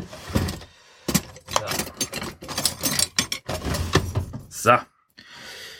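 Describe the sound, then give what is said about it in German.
Cutlery clattering and rattling as someone rummages through a drawer in a caravan to take out cutlery, a series of bright metallic clinks in irregular bursts with a brief scrape and a pause near the end. “Aber ich habe tatsächlich nur Besteck aus der Schüssel geholt. Aus, aus der Schublade, versteht sich.”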